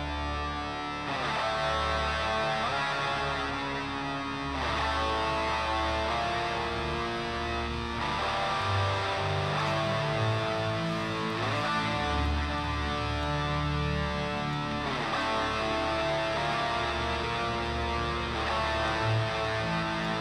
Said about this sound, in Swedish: fick intrycket av att det är bandet själva som skickar in och låten heter …